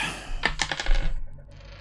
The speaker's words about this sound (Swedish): Mm, fyra på tärningen, uh, kameleont eh, två eh, och sen utstrålning är ju åtta. 14.